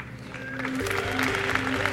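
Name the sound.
crowd applauding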